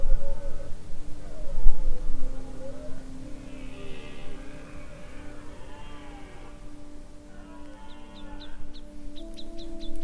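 Blackbirds and thrushes sing at a forest edge: varied fluting phrases, then a run of sharp repeated chirps, all over a steady low rumble.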